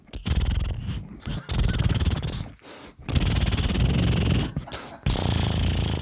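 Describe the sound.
A person imitates a cat purring, making loud, throaty rumbling bursts with a fluttering texture, repeated about four times with brief pauses between them.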